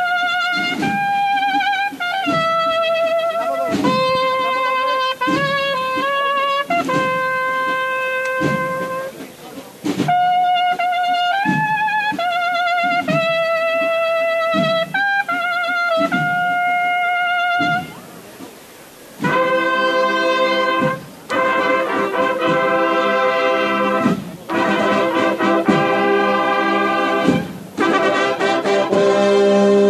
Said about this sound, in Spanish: la banda … que sigue abriendo paso a la cofradía del Cachorro, ya por la calle Castilla.